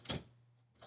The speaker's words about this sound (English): I'm sorry, I don't know if you can hear my dog is trying to open my door right now.